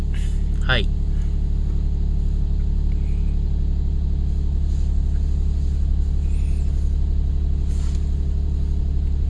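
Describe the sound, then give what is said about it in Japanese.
A car engine idles with a steady, muted low rumble through its HKS exhaust muffler fitted with a silencer, droning evenly throughout, with a brief high chirp near the start. “で、えー、マフラーは、えー、HKS。あと、マフラー、えー、サイレンサーのマフラーです。”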